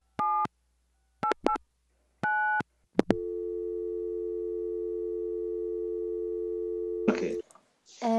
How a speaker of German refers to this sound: Äh, ich muss mal ganz kurz ans Telefon gehen.